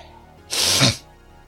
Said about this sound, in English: mighty sniff as he ponders.